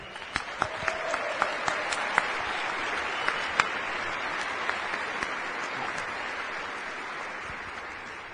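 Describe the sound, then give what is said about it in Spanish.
An audience at a convention claps steadily for several seconds, a dense wash of many hands with a few sharper individual claps standing out, fading slightly toward the end. No one speaks. “Yo creo que tú mereces un gran aplauso por haber logrado esta convención.”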